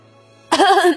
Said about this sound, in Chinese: 这时啊。有了个新来的门客，实在是看不下去了，清了清嗓子